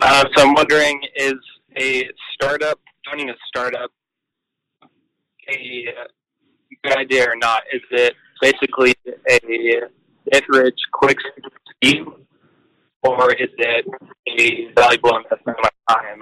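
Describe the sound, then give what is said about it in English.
A caller from Salt Lake City, Utah, speaks over a phone line that cuts in and out, with abrupt silent dropouts breaking up the flow of speech and a few words coming through slightly garbled. “So the question is, because uh, you broke up a little bit that uh, with uh, over the phone, when considering equity, is joining a startup a get rich quick scheme, or is it a valuable investment of my time?”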